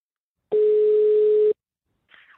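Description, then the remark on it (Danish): A single one-second burst of a steady, loud telephone ringing tone, heard by a caller phoning his grandfather just before a broadcast, followed by a pause and the faint start of a voice. “Jeg ringede til ham lige før udsendelsen, for lige at få en, øh, en status på, om den ene altså var gået til eller ej.”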